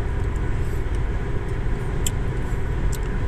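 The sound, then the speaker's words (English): Steady low rumble of a car cabin while driving, with continuous road and engine noise filling the low end and a couple of faint brief clicks near the end. “Once again, I'm in the car.”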